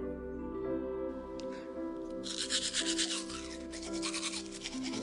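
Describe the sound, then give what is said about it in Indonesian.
Brisk, rhythmic scrubbing of a toothbrush against teeth in a bathroom at night, a fast back-and-forth rasp that starts partway in and continues over a steady background hum. “Suara sikap beradu dengan gigi menggema dari kamar mandi.”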